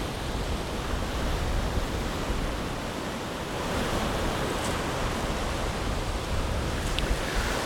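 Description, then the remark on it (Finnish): Wind from Storm Aila in September roars steadily over crashing waves of Lake Päijänne at Pukkila ridge, a dense, unbroken wash of surf and gusts, with faint crow calls briefly breaking through near the end. “Asko Hautaaho oli hiipinyt Päijänteen Pukkilan harjulle ja Asko ja varikset siellä olivat Ailan myrskyn kourissa.”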